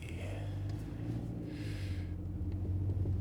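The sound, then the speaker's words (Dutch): A car engine rumbles steadily, its low hum rising slightly in pitch near the end as it pulls away in first gear. “En weer in de eerste versnelling.”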